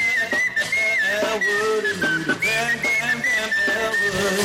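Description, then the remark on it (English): A person whistles a lively tune, a clear high melody rising and falling steadily across the whole stretch, with a busy layer of background sound underneath. “His whistling, his whistling's almost as good as his trumpeting.”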